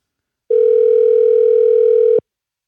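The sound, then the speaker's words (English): A single steady telephone dial tone from placing a phone call sounds clearly for under two seconds, loud, starting and stopping abruptly with no voices around it. “We're gonna call somebody else real quick.”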